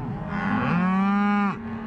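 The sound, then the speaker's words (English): A single cow gives a long, drawn-out moo lasting over a second, steady in pitch, with a faint outdoor background before and after. “because when the first fall frost chills the mountains, the cows instinctively head for home.”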